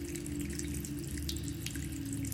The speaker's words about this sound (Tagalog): Naupo ako sa bangkitong nasa harap ng batya at pinagmasdan ang pag-ikot ng tubig sa loob ng batya na bunga ng paglakas ng pressure ng tubig na ibinubuga ng hose.